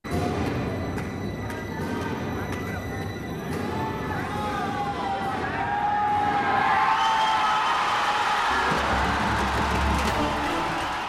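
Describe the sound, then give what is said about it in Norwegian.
A packed cinema audience at the first screening of the film Lagan in India erupts in a sustained roar of cheering and shouting as the film's cricket match reaches its climax, shrill whistles sliding up and down over the din, the noise swelling even louder toward the end. “Og hør publikums reaksjon når den velkjente cricketkampen i Lagan vises for første gang og klimakset inntreffer.”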